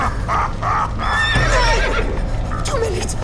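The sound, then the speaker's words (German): A black horse, ridden out through a gate, whinnies loudly with a high, wavering neigh over a steady rumble of galloping hooves, the pounding continuing throughout the short burst of sound. “Eine schwarze Gestalt sprengte aus dem Tor auf einem Rappen.”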